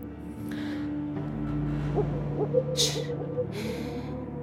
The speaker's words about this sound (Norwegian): Der skrek uglen. Den som varsler død og sier så uhyggelig god natt.